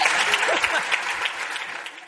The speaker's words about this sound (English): All right, a big round of applause for these amazing women.